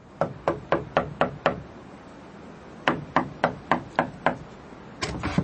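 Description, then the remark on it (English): Three bursts of firm, hollow knocks on the wooden door of a cottage, six sharp raps each in a quick steady rhythm with pauses between, fairly loud, the last set cut short. “I left the light on in the shed and went across to the cottage and knocked on the door.”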